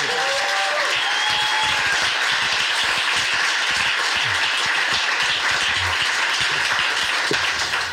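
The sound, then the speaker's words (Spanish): A loud, sustained burst of audience applause fills the whole stretch, dense overlapping claps forming a steady roar with a few brief whistles or cheers mixed in. “y por eso esta ovación, porque nadie había batido la frontera de las cuatro”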